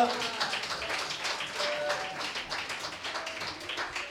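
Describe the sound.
A crowd applauds at the host's call, steadily for about four seconds, a dense, crackling wash of many hands clapping at even loudness, with a few voices calling out underneath.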